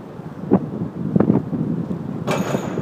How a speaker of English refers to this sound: and you ride underneath the Triborough Bridge or the RFK Bridge between Randall's Island and Queens, and the wind is howling all around you, and you hear the sound of trucks bumping overhead.